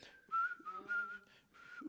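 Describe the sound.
Someone whistles a short part of a song's melody, a few sustained, slightly wavering notes with audible breathy air around them, heard alone without any talking.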